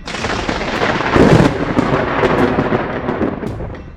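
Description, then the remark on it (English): A loud crack of thunder bursts out, swelling into a heavy crash about a second in, then rolls and rumbles on with crackling texture before fading slightly. No one speaks. “Sending an immense bolt of lightning at the drone, hitting dead on, but without a scratch.”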